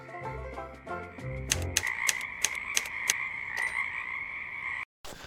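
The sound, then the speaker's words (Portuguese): A cururu toad croaks in a rapid series of sharp, rhythmic pulses over a steady chirring drone, fairly loud, following a few soft low musical notes at the start. “Lá, fugindo ao mundo, sem glória, sem fé, no peral profundo e solitário, é que soluças tu, transido de frio, sapo cururu da beira do rio.”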